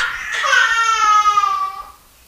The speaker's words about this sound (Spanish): Aún así, aunque estén llorando, por ejemplo, ahorita mi hija está llorando. Pero es una bendición, es una gran bendición porque ella está sana.